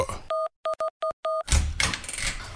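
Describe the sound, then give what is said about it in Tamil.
An electronic keypad door lock on a house beeps about five times as someone taps in a password and the lock will not open. The mid-pitched tones come in an uneven pattern with the first held longest, then a burst of rough rattling noise takes over. “ஏய் என்னடா அது டக்கு டக்குன்னு எத்தனை தடவை தட்டெல்லாம் பூட்டு திறக்க மாட்டேங்குது இதுக்கு தான் பழைய சாவியே வச்சுருந்தா அவ்வளோ நல்லா இருந்திருக்கா இன்றைக்கி என்ன பாஸ்வேர்டோ”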